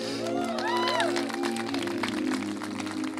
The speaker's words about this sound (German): Fetten Applaus für dieses Team.